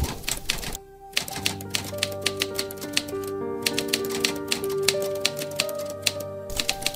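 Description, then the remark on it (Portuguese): Typewriter keys clack in quick, uneven bursts, with a short pause near the start, while a steady tonal hum holds underneath throughout. “O som de minha máquina é macio.”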